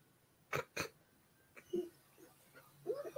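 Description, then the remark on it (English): A dog gives two sharp, loud barks in quick succession, followed by quieter, scattered whines and grumbling noises. “You, you tell that dog what's up.”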